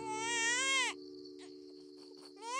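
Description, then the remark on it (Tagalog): A newborn baby, revived by a traditional birth attendant after being thought dead, wails loudly: one long cry, a pause filled by a faint steady tone, then another cry starting up. “Mahigit apat na oras din ang nakalipas, maya-maya ay narinig na naming umiyak ang kapatid ko.”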